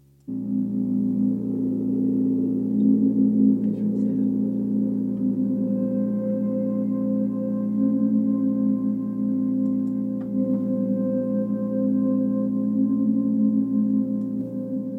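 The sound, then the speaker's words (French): A steady instrumental background track of sustained, layered drone-like tones plays on its own at moderate loudness, with no clear beat and no voices. “c'était la piste qui soulignait l'introduction de, de Brune, mais tu as aussi celle-là”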